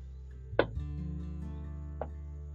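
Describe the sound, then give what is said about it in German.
Two dull knocks on a wall of a house, a firmer one followed by a softer one a moment later, fairly quiet over a low steady hum with no voices. “Ähm, ich klopfe jetzt gleich mal gegen die Wand und mal sehen, wie das schallt.”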